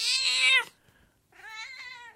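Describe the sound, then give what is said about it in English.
Two loud, drawn-out meows from a female cat right up against the microphone, separated by a short pause, the second rising and wavering. No one speaks. “See, when the dog hears the cat meowing like this, the dog's like, it kind of sounds like the cat's getting food”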